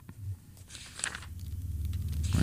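flipping through book pages

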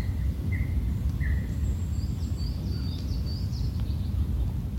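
birds chirping

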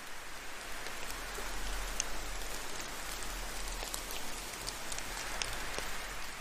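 raindrops falling

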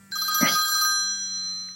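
telephone ringing

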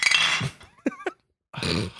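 glasses clinking

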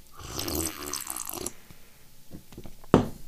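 drinking water

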